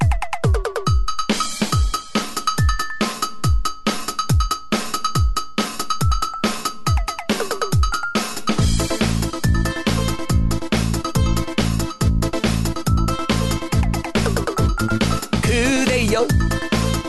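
A bright cowbell taps out a steady beat over a thumping kick drum, then the full band crashes in with bass, guitars and drums for an upbeat pop intro, loud and close with no singing yet.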